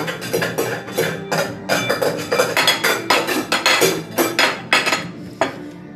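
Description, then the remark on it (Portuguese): Pots and pans clatter repeatedly in quick, irregular bursts, metallic bangs and clinks following one another, loud and busy with no voices. “Chegamos perto de uma porta e escutamos barulhos de panela.”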